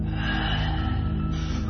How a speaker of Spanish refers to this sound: una respiración larga y quejumbrosa, como de moribundo, rompe el silencio. ¿Qué ha sido eso? ¿Quién anda ahí?